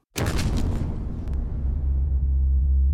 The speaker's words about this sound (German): 18. September 1931. Eine Bombe explodiert in Nordchina. Es scheint klar, ein chinesischer Anschlag auf die von Japan verwaltete und durch japanische Truppen beschützte südmanschurische Eisenbahn.